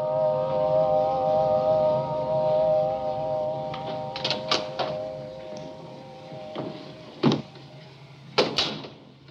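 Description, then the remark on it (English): An eerie, sustained synthesized chord, a film special effect, of several steady tones hangs for about seven seconds, then fades. A few sharp knocks or clunks punctuate it, including a couple more after it ends. “you know, he falls asleep in the chair dreaming of the beautiful dead girl, and we hear this weird chord, which is a special effect.”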